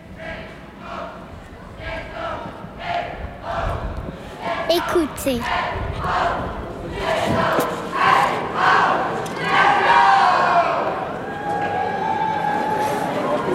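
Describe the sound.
A boisterous carnival crowd in Brest, Brittany, France, shouting and calling out, many overlapping voices forming a dense, rowdy din that swells louder toward the end, with occasional thumps and one voice speaking briefly at the start.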